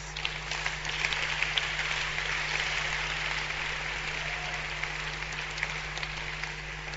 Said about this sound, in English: You must clap at this point.